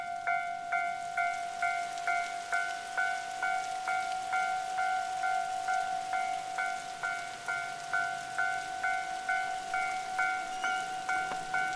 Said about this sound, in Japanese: 例えば、例えばこんなシーンにあなたはいますよ。踏切が鳴っていて、雨の中、電車を待っています。雨が強くなってきました。